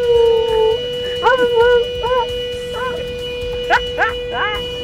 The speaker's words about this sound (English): The scene was filmed by bystanders who tried to communicate with the howling beagle. The people filming the canine could barely contain their laughter. Thankfully, the dog had access to fresh air as the driver's window had been left slightly open.